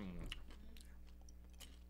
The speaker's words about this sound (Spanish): Bueno, pues ya lo sé, es bien desagradable escuchando masticar el micrófono.